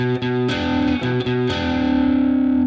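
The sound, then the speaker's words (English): A heavily distorted electric guitar plays a short riff of thick double-stop notes with quick attacks, the two notes bent together so intermodulation distortion thickens the sound, ending on a bent, sustained chord that rings out loud, with no voices. “And so what I what I find so cool about that riff is that when you play those two notes, these two notes together, rather than just let them go, you bend them. And that kicks in that intermodulation distortion and just thickens the sound.”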